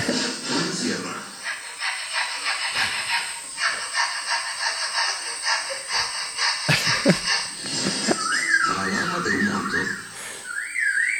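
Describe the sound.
An animal imitates the chainsaws of loggers in its natural habitat, with harsh, buzzing rasps and revving, warbling whistles, loud, running continuously without speech.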